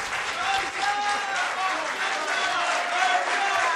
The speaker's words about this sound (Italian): Vabbè, giustamente sta prendendo gli applausi.